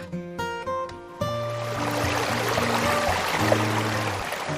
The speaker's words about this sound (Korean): 와, 물소리 들으니까 너무 좋다. 근처에 계곡이 있대.